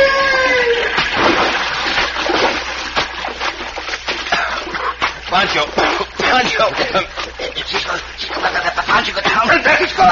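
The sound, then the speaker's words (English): Loud, churning splashes as people plunge into a river, with repeated bursts of turbulent water and voices shouting over the commotion. “When I give the word, we will jump down into the river.”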